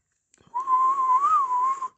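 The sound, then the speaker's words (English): A single sustained whistled tone, fairly loud, holding one pitch with a slight rise and fall for about a second and a half after a few faint clicks, as a person whistles while looking for tickets. “They do anything for a whistle.”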